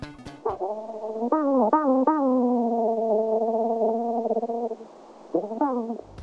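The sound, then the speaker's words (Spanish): A braconid parasitoid wasp, Cotesia marginiventris, makes a steady, nasal buzzing drone with a few quick upward pitch chirps, running several seconds, pausing briefly, then returning with another short rising burst. No voices. “La respuesta correcta es B, una avispa bracónida, de nombre científico Cotesia marginiventris.”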